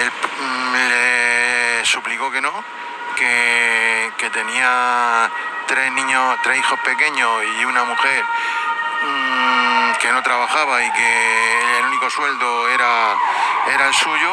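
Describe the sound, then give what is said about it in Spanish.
A siren wails faintly in the street behind a man speaking steadily, its tone holding and then sweeping upward, staying in the background under his voice. “Eh, disculpa por la sirena porque estoy en la calle.”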